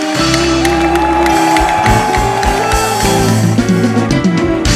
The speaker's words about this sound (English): Stop. Stand on your feet. Clap your hands. Shout unto God.